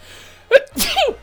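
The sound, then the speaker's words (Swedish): A single sneeze: a sharp intake burst followed by a loud, breathy explosive release, heard alone against a quiet background. “Prosit!”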